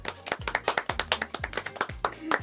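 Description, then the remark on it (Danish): A small group claps their hands in quick, steady applause for all the quiz participants, sharp overlapping claps filling the whole moment before fading out. “Jeg synes lige, vi skal lige give jer alle sammen en hånd.”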